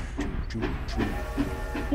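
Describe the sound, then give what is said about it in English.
A steady rumbling train sound with rhythmic chugging pulses and a hissing, steamy texture, continuous and fairly loud throughout the short stretch. “This is this is the train for the Patriots.”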